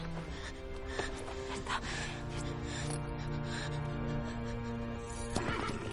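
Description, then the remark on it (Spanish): A horse whinnies and snorts as a man mounts it, its drawn-out, wavering neigh filling the moment, with a few scattered hoof clops and thuds underneath. “se monta en el caballo.”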